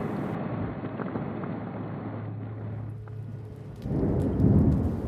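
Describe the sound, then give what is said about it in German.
Steady rain hisses throughout a late-evening thunderstorm over the southern tip of Malta, then a deep, rolling rumble of thunder swells up loudly near the end, with no voices. “Die Südspitze Maltas in ein spätabendliches Lichtermeer getaucht, am Himmel ein dunkelviolettes Gewitter, unterbrochen von drei scharfen, gezackten, grellweißen Blitzfingern und schwarzen Wolkentupfern.”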